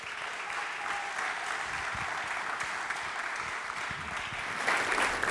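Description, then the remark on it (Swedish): An audience applauds steadily as two people are welcomed forward, a dense wash of many hands clapping at an even level for several seconds, swelling slightly louder near the end. “Vi ger dem en stor applåd.”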